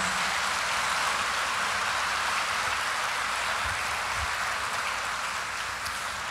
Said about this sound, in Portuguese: Aplauda Jesus por isso.